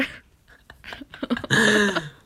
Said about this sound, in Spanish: Hoy estoy con tos, no voy a poder grabar.